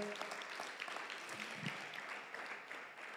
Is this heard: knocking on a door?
no